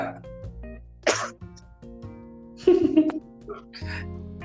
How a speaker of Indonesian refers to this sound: hmm batuk lu